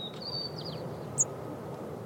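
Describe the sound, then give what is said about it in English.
A faint white-crowned sparrow song: a thin, steady whistle followed by a few quick sliding notes, then one sharp high chirp, over a steady low background rumble. “All white crowned sparrow songs start with a whistle”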